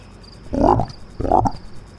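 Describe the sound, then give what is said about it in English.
Two loud, throaty frog croaks about half a second apart, with a faint, steady chirp of insects underneath. “Chapter 2 The Night of Croaks.”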